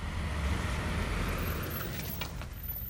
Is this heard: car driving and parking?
yes